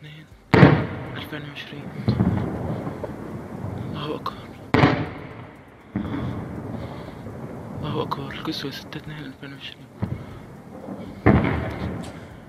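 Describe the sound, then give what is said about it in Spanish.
Several heavy, booming explosions from missile strikes in an area south of Damascus at night go off one after another at irregular intervals, each a sharp blast that rumbles and fades, with faint background voices and noise in between. “Así se escuchaban anoche con toda claridad las explosiones en el área en videos que fueron subidos casi de inmediato a las redes sociales.”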